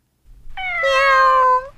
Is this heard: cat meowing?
yes